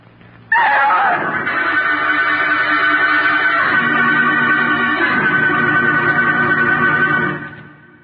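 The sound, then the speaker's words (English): A sudden, loud dramatic musical sting from the 1940s radio drama The Mysterious Traveler bursts in and holds a dense, brassy sustained chord that shifts pitch a couple of times before fading out after several seconds, with no voices. “I mean, it's a piece of punctuation, a piece of musical shorthand that communicates an emotion really rapidly.”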